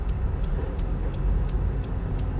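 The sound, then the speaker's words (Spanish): Steady low-frequency road rumble fills the car cabin, a continuous engine and tire drone with faint periodic ticks, heard from inside a car stuck in traffic caused by an accident ahead. “Estoy en el tráfico ahora mismo y ahora, ahora vi por qué, hay, por qué está el tráfico, que hay un accidente.”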